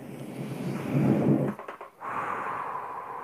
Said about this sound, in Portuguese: Vou convidar vocês então para fechar os olhos, fazer uma respiração bem profunda agora.